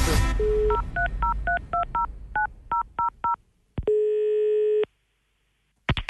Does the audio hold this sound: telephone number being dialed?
yes